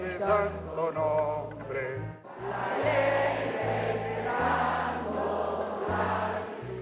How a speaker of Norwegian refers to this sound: For det er ikke hans stemme som høres på stats-TV når musikken spiller opp og folket jubler.